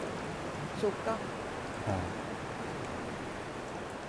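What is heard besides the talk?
small waterfall flowing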